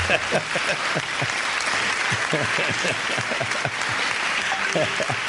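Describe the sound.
A crowd applauds steadily, dense clapping filling the room, with some voices talking and calling out over it.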